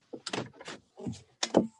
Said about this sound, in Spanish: Dame un segundito, nada más cierro esta puerta.